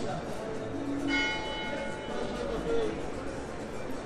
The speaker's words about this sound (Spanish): Aparece el paisaje sonoro de Bogotá, exterior.